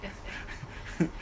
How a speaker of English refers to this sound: Yeah. that was my dog.